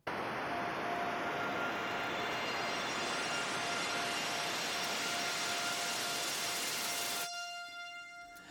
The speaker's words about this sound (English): this other noise sound as well. And I believe it's just white noise.